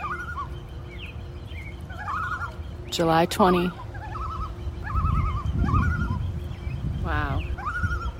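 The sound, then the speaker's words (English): Two common loons call across Rice Lake, Wisconsin, with repeated quavering tremolo calls and two louder, rising cries, under a low background rumble. A person speaks briefly. “enjoying two common loons on the lake.”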